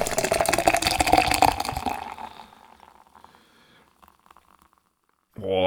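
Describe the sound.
Foaming draught stout gushes from a can that is not yet fully opened, in a loud gushing, fizzing rush for about two seconds, then settles into a faint crackling hiss before a voice starts at the end.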